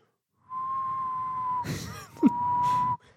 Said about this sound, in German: also das Witzige ist bei mir, so normales Pfeifen kann ich manchmal. Ich kann es mal live versuchen.